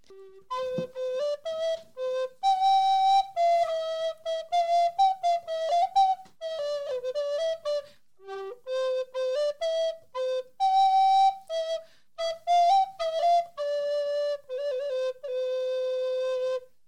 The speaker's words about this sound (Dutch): die daar zomaar even de blokfluit pakt en een stukje fluit.